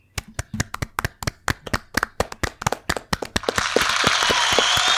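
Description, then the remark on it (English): Crisp, scattered hand claps build quickly into a dense, loud wash of applause with cheering hiss, a canned crowd applause effect played from a soundboard. “So everybody, give a nice round of applause for the soundboard.”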